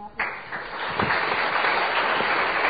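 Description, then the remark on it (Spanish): An audience breaks into applause after a brief pause, a dense, steady wash of many hands clapping that stays loud and even until the end, with no talking over it. “Perfecto, un aplauso para mí.”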